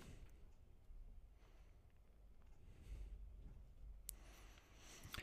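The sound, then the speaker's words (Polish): Quiet handling of a component part of a pen: soft scraping and rustling throughout, with a sharper click or snap near the end. No one speaks. “No tak, część składowa Część składowa tego długopisu.”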